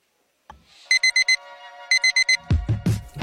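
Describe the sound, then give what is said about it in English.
An alarm clock goes off in the morning: a steady electronic tone, then two bursts of four rapid high beeps, followed by louder low thumping noises at the end. “There it is. The sound signaling your morning has begun.”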